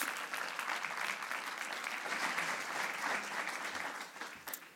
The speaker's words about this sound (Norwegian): Kom opp her. Ja, gi henne en applaus.